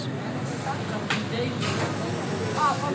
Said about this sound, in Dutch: Wanneer de operatiesetjes klaar zijn, gaan ze in een van de vijf autoclaven. Die steriliseren alles met stoom, onder hele hoge druk. Ja, dit lijkt een geluid wat je nu hoort van een autoclaaf die draait.